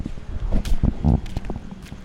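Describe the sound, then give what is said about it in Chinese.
Footsteps of a person walking outside, a series of irregular scuffing thuds about every quarter second, with a low rumble of wind noise underneath and no talking. “那给大家听一下我的脚步声。”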